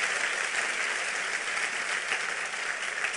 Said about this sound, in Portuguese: Diga o nome da coisa principal. Jesus, aplaudo ele bem forte.